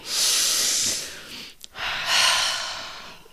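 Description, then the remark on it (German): A deep breath, drawn in with a long, airy rush, a brief pause, then released in an equally long, breathy exhale. It is fairly loud, with no talking. “Jetzt atmen ja. wir einmal.”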